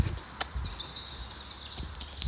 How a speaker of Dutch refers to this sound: Ik laat je nog even genieten van de vogeltjes.